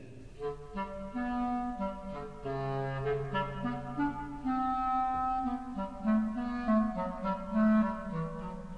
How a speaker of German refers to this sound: Den Kater miaut die Klarinette